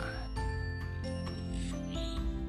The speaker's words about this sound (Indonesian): Si mantan jenderal itu mencari HP-nya yang berdering. Akhirnya ia temukan dari balik celananya.